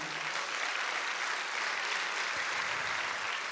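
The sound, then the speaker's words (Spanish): A church audience applauding the Lord at the preacher's call during a sermon, a dense, continuous wash of many hands clapping at an even loudness throughout, with no voices standing out. “Si puedes darle un aplauso al Señor, amado hermano.”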